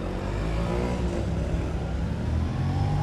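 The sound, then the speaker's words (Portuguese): A motorcycle engine rumbles loudly as it passes on the road going the wrong way against traffic, holding a steady, throaty drone with mixed road noise throughout, with no one talking. “Ok, caralho, uma moto na, contra, na contramão.”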